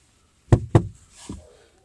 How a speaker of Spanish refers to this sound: Y era el hermano que le estaba tocando la puerta pues poder entrar al cuarto, no lo tenía por fuera hace rato.